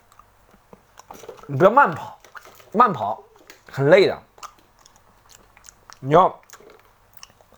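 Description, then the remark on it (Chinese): Someone chews a crunchy vitamin C tablet, giving faint, irregular crunching clicks that run beneath a voice speaking in short bursts throughout. “好，我吃完了维 C 片”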